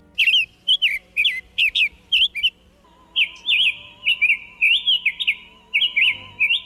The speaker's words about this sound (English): the summer tanager specializes in capturing bees and wasps. And when it catches a bee, it beats it against a branch to kill it, then rubs it on the branch to remove the stinger. Here's the song of our featured feathered friend, the summer tanager.